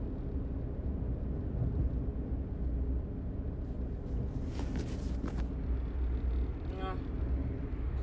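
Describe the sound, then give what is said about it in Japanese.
Steady low rumble of a car's interior while driving along a road with no other traffic, with constant engine and tire drone filling the cabin and a few brief higher clicks and squeaks partway through. “一気に車通りが今ないところ走ってるんだけどその、ね、スピードがね、まあ、おのずと出ちゃうんだよねあの別に速度違反するほどのスピードじゃないんだけど私割とゆっくり運転な方なので”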